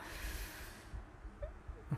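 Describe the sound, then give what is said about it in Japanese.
An electric fan blows air onto a person's back during a recording on a hot day, with no air conditioning, giving a steady breathy rush with low buffeting thumps. The hiss fades partway through, leaving quieter gusty rumbles. “まあ、多分この風の音が入ってるのかなと思うんですが、まあ、扇風機を今背中からバーバーバーバー当てながら収録をしてますんでエアコンなしで”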